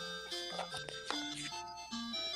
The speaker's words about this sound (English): It's, it's the NES edition of Wheel of Fortune. Nope. No, Jeopardy. no, it's Jeopardy.